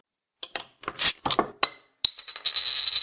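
Several bright glass clinks tap together in quick succession, crisp, followed by a sustained ringing tone as the glasses chime on after the toast.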